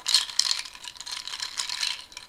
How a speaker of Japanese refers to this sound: あったマドラー銅の銅でできてるマドラーですね綺麗なねこれを使って混ぜるそうするとねこれが抹茶ミルクになるわけよ